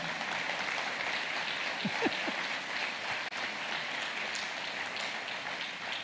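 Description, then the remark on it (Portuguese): An audience applauds Jesus steadily, a dense, even wash of many hands clapping that holds for several seconds, with a few faint voices rising briefly within it. “Então vamos aplaudir Jesus, que a irmã está feliz com ela.”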